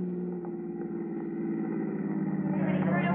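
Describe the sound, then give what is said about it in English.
A car engine hums steadily at low speed, its rumble thickening slightly near the end as the car slows and pulls up to a stop. “pull up here.”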